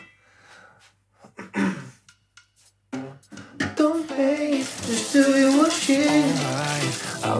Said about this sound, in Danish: Så jeg vasker de kopper, der står i min vask.